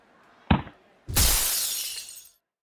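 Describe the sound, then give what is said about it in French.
A dull thump like a hard-kicked soccer ball striking, then half a second later a loud crash of a school classroom window shattering, with bright glass tinkling that fades over about a second; no talking. “Louise Miguel, son meilleur ami, a frappé tellement fort le ballon qu'il a pris sur la fenêtre d'une classe”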